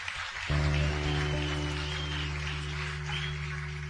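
A crowd applauds in a dense, steady wash of clapping, joined after half a second by a loud, sustained low droning tone that holds under the applause to the end.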